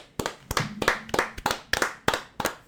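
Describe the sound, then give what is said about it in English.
Hands clap in a steady, fairly quick rhythm, about nine sharp, bright claps in a row, loud and without anyone talking over them, a small group clapping together in time to cheer news of Louisiana legislators proposing marijuana policy reforms. “Can we get a round? It was yes, yesterday. Get, get a round yep. applause, guys.”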